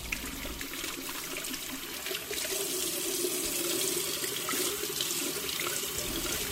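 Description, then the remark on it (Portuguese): Water runs steadily from a tap into a sink, a continuous splashing rush as food is rinsed under the stream to remove dirt such as soil, with no voices over it. “Antes de qualquer coisa, a gente tem que lavar os alimentos em água corrente para retirar toda aquela sujeira do alimento, como por exemplo a terra, né?”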